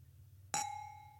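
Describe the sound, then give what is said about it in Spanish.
A single bright clink of wine glasses touching in a toast, followed by a clear ringing tone that slowly fades over a faint low background hum. “Salud.”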